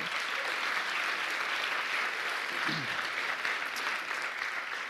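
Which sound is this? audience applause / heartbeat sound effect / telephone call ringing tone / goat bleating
audience applause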